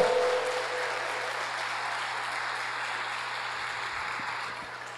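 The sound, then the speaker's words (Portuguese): An audience applauds God in a steady, dense wash of clapping that holds at an even level for about five seconds, with a faint low hum underneath and no talking. “Se você crê e recebe, dê mais um aplauso a esse Deus, vai, por favor.”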